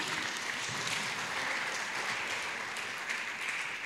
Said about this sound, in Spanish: Muchas gracias, hermano. ¿Por qué le damos un aplauso al hermano? A todos y a cada uno.